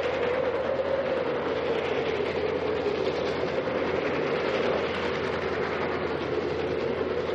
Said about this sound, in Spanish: Cuando se deshizo el vapor que se había elevado hasta mi altura desde el tren que pasó velozmente y empezó a desvanecerse en el paisaje,